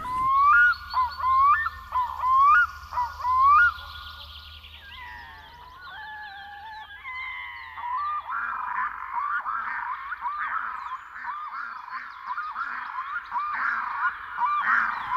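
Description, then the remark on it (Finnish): Red-throated loons call loudly in a series of rising, goose-like honks, then shift into a sustained, rhythmic chorus of wavering, cackling wails that continues without pause. No one speaks. “Kaakkurit siellä huutaa joka kesä niin, että oikein ilikiää tekee.”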